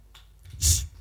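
A single sharp sneeze bursts out briefly, a short airy blast with a hissy edge, against quiet with no talking.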